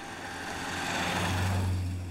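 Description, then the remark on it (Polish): A car engine hums low and steady with a broad rushing noise, its drone thickening for a moment before easing slightly as it pulls away. No voices are present. “Kradzionym samochodem wyjechał z miasta.”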